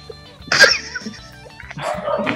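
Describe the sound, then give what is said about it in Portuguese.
A neighbor's dogs bark in two short bursts, one sharp yelp-like outburst followed after a pause by a rougher, longer round of barking, with no talking. “prende, prende esses cachorros aí. É o cachorro do vizinho, pô.”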